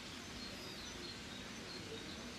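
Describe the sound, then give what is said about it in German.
Many birds chirp faintly outdoors in the mountains, thin high calls scattered over a steady hiss of outdoor ambience, with no one speaking. “Übrigens, ich habe hier ganz viele Vögel, die zwitschern.”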